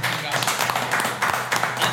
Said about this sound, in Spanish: Un aplauso,